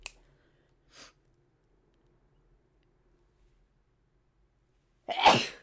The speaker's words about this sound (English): I'm about, I'm about to sneeze.